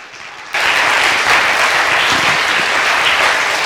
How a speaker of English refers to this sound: let's just give him a round of applause as he comes forward.